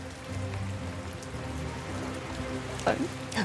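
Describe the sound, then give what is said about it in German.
Steady rain falls throughout, a continuous even hiss of drops on a surface at moderate loudness, with a brief voice-like tone rising near the end. “durch den Regen ist es einfach sehr schwer zu definieren, was da drin eigentlich abgeht.”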